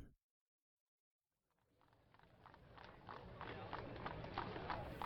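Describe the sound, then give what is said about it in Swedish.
Horse hooves clip-clop on Market Street in San Francisco in a steady rhythm, growing louder over a rumbling background of traffic after a brief silence. “Det djupa brummandet från välpolerade Oldsmobiles blandas med ljudet av hovar, spårvagnar och glada tillrop.”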